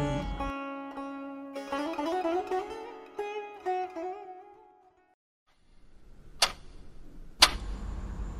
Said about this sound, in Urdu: گھڑی کی ٹک ٹک پورے کمرے میں گونج رہی تھی